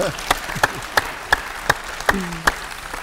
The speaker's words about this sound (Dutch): Hij heeft een nieuwe baan. Applaus. Hij heeft een nieuwe baan.